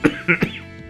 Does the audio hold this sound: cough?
yes